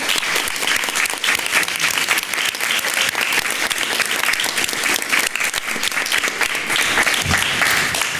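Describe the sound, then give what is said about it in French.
Sustained applause from an audience thanking a library staff member at a project event in Isère, France, a dense steady patter of many hands clapping for about eight seconds, fairly loud, with no talking over it. “On peut l'applaudir.”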